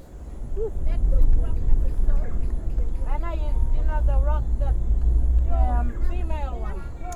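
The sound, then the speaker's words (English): A car drives along with a steady, loud low rumble of engine and road noise throughout, while people talk intermittently over it, as if heard from inside the vehicle, on the way to Gumbalania in Australia's Top End, about four hours from Darwin. “Ensuite, on prend une autre voiture et on arrive à Gumbalania.”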